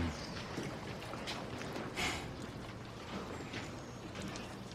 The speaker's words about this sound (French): des trucs qui grincent euh, pour donner un côté mystérieux, flippant à tout ça